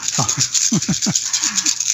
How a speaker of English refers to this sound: Dude, that sounds like a lot of dice. That's, yeah, it's, a, big handful. Of course, I've got small hands.